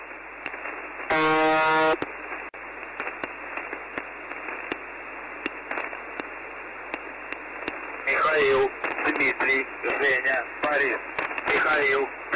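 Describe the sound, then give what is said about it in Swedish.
Transmission from a Russian shortwave radio station, full of steady hiss and crackle, with a loud, harsh buzzing tone lasting about a second early on, then a distorted voice speaking Russian through the static toward the end. “Ja, det man vet är ju liksom, det är en rysk station.”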